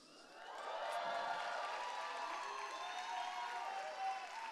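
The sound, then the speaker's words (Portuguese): Soft, steady applause from a large church audience during a service, many hands clapping gently together for several seconds without rising to cheers. “Tem que dar aplauso baixo, baixo, baixo.”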